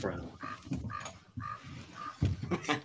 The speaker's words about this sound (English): Crow. You're a crow.